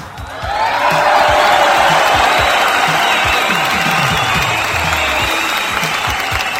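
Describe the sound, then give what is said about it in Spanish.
A crowd bursts into loud, sustained applause mixed with cheering and a few whoops on a Saturday night broadcast of a song, the dense clapping holding steady for several seconds with no one speaking over it. “Eso merece un fuerte aplauso.”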